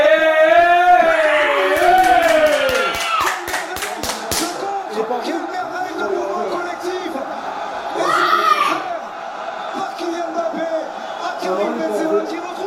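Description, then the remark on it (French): A crowd of French football supporters erupts in joyful cheering as France scores five minutes before the end of regulation time, with loud shouts and whoops and a burst of rapid clapping, then settles into a steady roar of excited voices that swells again. “C'est l'explosion de joie chez nos amis supporters du soir.”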